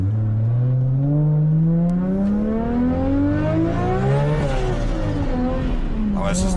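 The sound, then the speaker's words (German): A tuned car engine revs loudly, its pitch climbing steadily over several seconds before dipping and surging again, with a turbo whistle over the roar. “Der Sound ist wunderschön. Wie man den Turbo immer pfeifen hört.”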